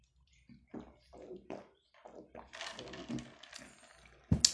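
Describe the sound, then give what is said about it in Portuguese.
Someone drinks water during a pause in speaking, with a run of soft, wet gulps and swallows at an irregular pace, ending in a sudden sharp knock. “Pausa pra água”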